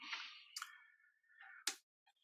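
Rustling and sliding of paper against a braille writer as the paper is positioned and rolled in, punctuated by two sharp mechanical clicks and a few faint ticks near the end, with no voices.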